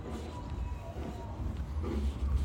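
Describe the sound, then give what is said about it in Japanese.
Muffled live music thumps through walls from a venue in Los Angeles on a Friday night, leaking out as far as the parking lot, mostly heavy bass and a steady beat with the higher sounds dulled, carrying steadily outdoors at moderate volume. “外まで音が漏れ漏れです駐車場までこんだけ音が漏れてんだけどこれ外だからねやばいよねこれ”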